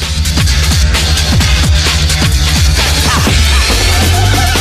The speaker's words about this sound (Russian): Это и называется Amen Break. И это рассказ о самом сэмплируемом 6-секундном соло на ударных в истории.